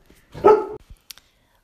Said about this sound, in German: Ja, wuff, das war mein Hund, Entschuldigung.